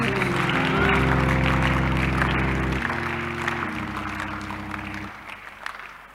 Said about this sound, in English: Come on, clap your hands and praise Him.